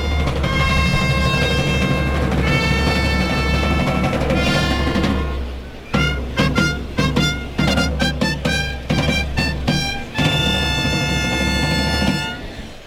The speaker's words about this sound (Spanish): El presidente saca el pañuelo blanco, Clarina y timbales.